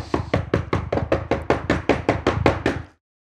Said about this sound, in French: Perdant patience, celui-ci se saisit rageusement du heurtoir pour frapper fort afin de se faire entendre dans toute la maison.